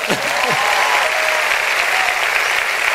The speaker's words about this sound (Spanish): Ah, pero aplaudan bien.